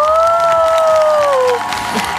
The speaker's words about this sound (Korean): 여러분 기립박수 부탁드립니다. 볼륨에 정말 엄청난 배우님이 오셨어요.